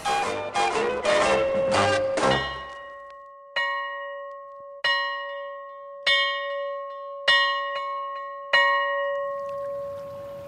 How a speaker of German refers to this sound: Die Armut verurteilt dies arme Glücklein zu so lang andauerndem Schweigen, dass es die endliche Erlösung feiernd, doppelt jubelnd und freudig läutet. Zum neuen Jahr über Hohenwald.